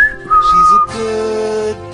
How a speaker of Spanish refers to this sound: Sus labios perfilados se contraen para dejar escapar un silbido corto.